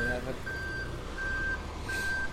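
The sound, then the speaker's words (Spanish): A busy city street with a steady wash of traffic noise, over which a reversing vehicle's high electronic beep repeats at a regular pace, three or four long, clear tones, while equipment is being unloaded. “Con todos, la moto, el pito, el, señor vendiendo, el otro gritando.”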